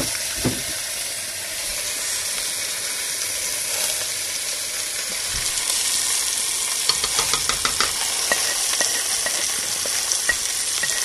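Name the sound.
meat sizzling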